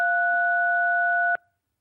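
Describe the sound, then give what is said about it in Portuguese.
Phone line interference: a steady, fairly loud electronic dual tone over a thin hiss of line noise, holding unchanged for over a second before cutting off abruptly into silence. “Agora aqui uma, pequena interferência eh, que não é da nossa parte, certamente.”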